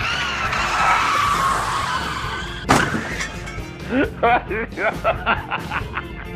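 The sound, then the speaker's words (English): A long, loud tire skid screeches for a couple of seconds and ends in a sharp impact, followed by quick chattering bursts of a voice mimicking crash and engine noises. “And, oh, do I hear tires?”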